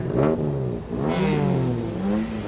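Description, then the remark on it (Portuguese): A car engine revs hard and accelerates, its pitch surging upward twice in quick succession before holding at a steady, loud roar, with no voices. “Você dirige como os caras das corridas”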